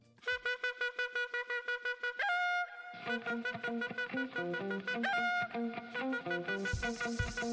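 A song's instrumental intro plays with bright, buzzy sustained chords pulsing in a steady, choppy rhythm, shifting pitch a few times before heavy drum hits and a noisy burst kick in at the end.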